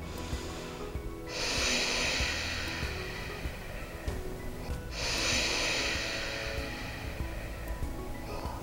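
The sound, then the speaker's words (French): Slow breathing in and out through the nose during a breathing exercise, with two long airy inhales or exhales, each lasting a few seconds, separated by quieter pauses. No one speaks. “Vous allez inspirer par le nez, expirer par le nez.”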